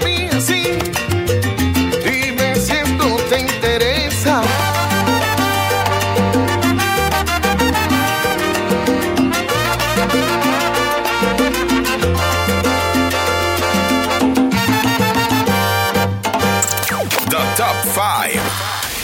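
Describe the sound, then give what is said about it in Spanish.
A salsa song plays loud and steady throughout, with a full band, driving bass and bright horns or piano filling the mix, and a Spanish vocal line weaving over the rhythm. “Canción … se llama la que acaban de escuchar”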